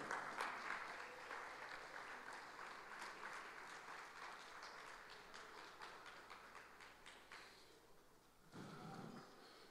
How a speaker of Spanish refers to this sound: Pongámonos de pie, por favor. Un aplauso para el Señor.